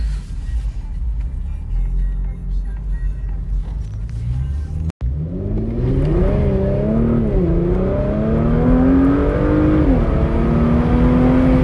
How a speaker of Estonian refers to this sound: lõpuks ometi sain äh, natukene gaasi põhja vajutada. et äh, jess, ülihea minek on. keerame siin ümber. et teeme natukene minekut. kuulete seda häält, tegin klapid ka lahti et oleks paremini kuulda.